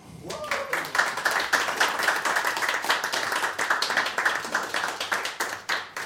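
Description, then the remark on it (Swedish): A crowd applauds with dense, steady clapping that holds at an even loudness for about six seconds, with a few faint voices mixed in. “Värt en applåd.”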